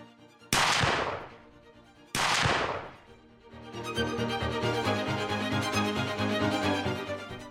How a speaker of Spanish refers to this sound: JFK recibe dos balazos, el primero le atraviesa el cuello, el segundo impacta en el cráneo.